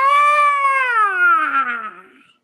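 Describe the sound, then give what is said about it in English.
A voice imitates the sound a rooster made as its chest deflated: one loud, drawn-out wailing cry, alone, that slides steadily downward in pitch before fading out. “All I know is this bird went from about 200 pounds to like nothing. It just like its entire chest just imploded. And the sound that came out, ah!”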